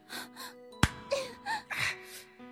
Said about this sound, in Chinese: 看到他伏在被子里哭，看着他满脸的泪水，听着他的哭声，心里真的好像有点疼。